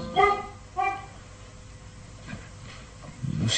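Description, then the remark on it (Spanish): A large mastiff barks twice in quick succession on the other side of a fence in fog, deep and resonant, then the scene falls to a low murky background before a muffled rustle rises at the very end. “está ladrando.”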